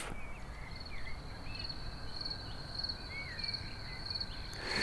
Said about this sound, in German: Die Grillen hingegen bei heißem Wetter vor allem während der Mittagszeit bis tief hinein in die Nacht, bevor es abkühlt.